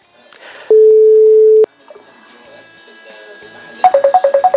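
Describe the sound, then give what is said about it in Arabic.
A steady electronic tone holds for about a second, then after a pause a rapid series of short pulsing beeps begins, like a phone call signal during redialing, as the caller tries the call again after the line was cut. Faint background voices are present. “اه انقطع الخط آه، يمكن قطعت الكهرباء عندهم ما بعرف تنرجع نجرب نتصل”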